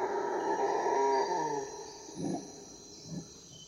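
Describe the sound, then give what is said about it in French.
A howler monkey's alarm call in the Amazon rainforest, interrupting the family's chorus: a loud, deep, droning roar lasting over a second, then two short gruff barks, all over a steady high insect buzz. “Ce chorus est soudain interrompu par un cri d'alarme.”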